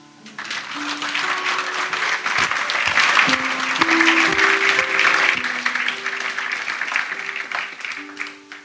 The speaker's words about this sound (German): Spiel doch mit einer Hand weiter Klavier. Kann sie gut. Wollt ihr mal klatschen für sie?